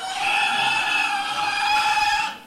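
Hungry piglets in a barn squeal loudly and continuously while fighting over their mother's teats, a shrill overlapping chorus that holds steady for a couple of seconds before cutting off abruptly. No one speaks.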